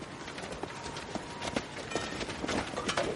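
Quick, uneven running footsteps of a soldier running away strike over a steady background of noise, each step a sharp thud, keeping a fairly constant loudness throughout.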